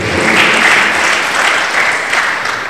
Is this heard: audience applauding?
yes